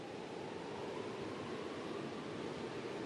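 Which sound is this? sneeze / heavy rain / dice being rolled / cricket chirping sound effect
heavy rain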